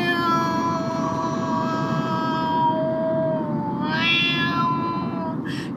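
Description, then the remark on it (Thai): An injured black cat called Dam, bleeding and covered in bite wounds, lets out a long, drawn-out, plaintive meow that wavers in pitch, rising into a sharper yowl near the end, over a steady background hiss, as it is picked up, frightened with its fur bristling. “ก็อุ้มแมวมาแมวก็ทำท่าหวาดระแวงกลัวขนพองๆแต่ตัวเนี่ยเกลอะกลังไปด้วยเลือดเต็มไปหมดเลย”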